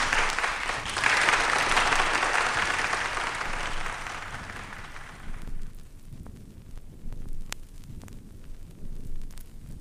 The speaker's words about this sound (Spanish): Arriba, arriba, palmas todo el mundo.